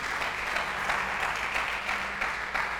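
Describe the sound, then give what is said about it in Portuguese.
An audience applauds for Jesus during a sermon, a dense, even wash of many hands clapping with no clear individual beats, sustained at a fairly loud level throughout with no speech over it. “Dá um aplauso a Jesus.”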